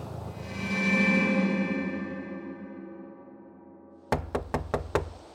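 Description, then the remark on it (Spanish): Five sharp, evenly spaced, loud knocks on a door ring out right after a sustained musical drone fades away; no one speaks. “La puerta. Bajas a abrir.”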